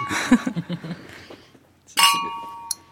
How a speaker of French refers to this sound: Je vous propose de trinquer.